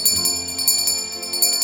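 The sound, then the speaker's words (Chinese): A small bell rings softly and continuously at night, its bright, high-pitched strikes repeating in a quick, uneven rhythm with a lingering metallic shimmer. No one speaks. “铃声还是一直轻轻地响个不停。”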